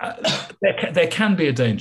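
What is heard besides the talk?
sneeze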